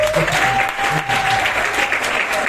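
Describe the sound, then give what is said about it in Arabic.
Steady audience applause for the performers of a sketch, a dense wash of many hands clapping at an even, loud level throughout, with a thin sustained whistle-like tone running faintly beneath it. “آه، كم حد اتبسط في السكتش ده؟ ممكن احييهم جامد يعني”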